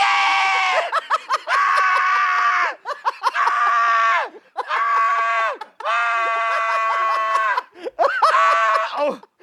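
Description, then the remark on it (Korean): A voice imitates a mother's panicked screaming at scam callers on the phone, a string of loud, sustained shrieks, roughly five long cries separated by brief gaps, piercing with a strained, wavering pitch. “평소 목청이 좋으신데 너무 당황해서 비명만 계속 지르신 거예요.”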